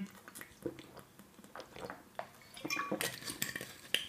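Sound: sipping water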